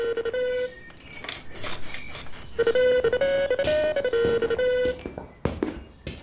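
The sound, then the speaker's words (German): In the early morning, the telephone of the writer Heinz Strunk rings while he is still in bed. It plays a bright electronic ringtone melody that rises and falls. Clattering noises, like dishes or objects being moved, sound alongside it. “Doch das plötzliche Klingeln seines Telefons reißt ihn aus den wohligen Gedanken eines verblassenen Traums.”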